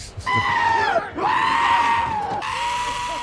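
A goat bleats loudly, two long quavering cries back to back, then a third trailing call, with no talking.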